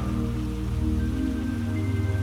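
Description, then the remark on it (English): Steady rain falls without pause, a continuous soft patter blended with a low, sustained humming drone, with no one speaking. “The sound of the rain begins to soothe your body and your mind.”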